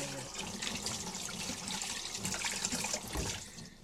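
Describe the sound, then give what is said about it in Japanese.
Chopsticks being washed under a running tap while doing the dishes with grapefruit-scented dish detergent: a steady gush of water with some splashing and faint shifting, continuing for a few seconds with no voices. “今ねお箸を洗っております”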